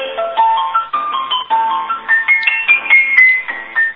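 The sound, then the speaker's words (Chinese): A phone ringtone melody for an incoming call plays on its own for several seconds, a bright electronic tune of short notes that climb step by step, pulsing in steady phrases at an even, moderate loudness. “蛮好听的音乐，刚刚是音乐，蛮好听的。”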